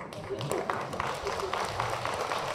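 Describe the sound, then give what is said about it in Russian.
Audience applause: a steady, dense patter of many hands clapping at an even loudness throughout, with a faint murmur of voices mixed underneath. “Дружные аплодисменты средних советских интеллигентов были ему ответом.”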